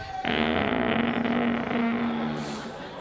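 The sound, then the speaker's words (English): A door creaks open in one long, drawn-out groan lasting nearly three seconds, loud, with a steady low raspy tone and no voices. “you hear that door?”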